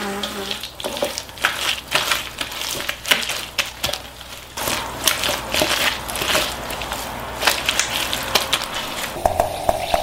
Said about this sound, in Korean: 알듯 모를 듯 하다가 마지막 아삭아삭 소리에서 힌트를 얻었습니다. 생각을 여는 소리 사운드 오브 데이. 오늘은요. 내일 입동을 맞아 우리 민족의 최대 월동 준비인 김장하는 소리를 들려드렸습니다.